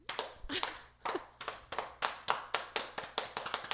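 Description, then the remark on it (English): Steady, rhythmic slow clapping at a dinner party as a sommelier leaves, about a dozen crisp claps at an even measured pace, clear with no talking over it. “The sommelier leaves frame and the yellings begin to slow clap as the sommelier leaves frame in literal slow motion.”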